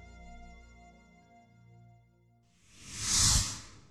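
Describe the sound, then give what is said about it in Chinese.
Low, steady tones fade out, then a cold, breathy gust of wind outside a window swells into a loud hissing whoosh and starts to die away. No one speaks. “楼阁里很安静，唯有窗外传来寒风的声音。”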